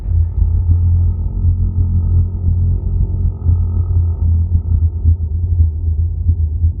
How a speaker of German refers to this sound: Hören Sie Wahlgesänge. Klingt verrückt, aber Wale haben in ihren Stimmen eine sehr wohltuende tiefe Klangfärbung, die genau so klingt.